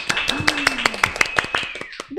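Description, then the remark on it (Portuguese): A short burst of applause welcoming two guest experts: about a dozen sharp, evenly spaced claps in a quick steady rhythm, with a faint sustained tone and some vocal sound underneath. “Uma salva de palmas!”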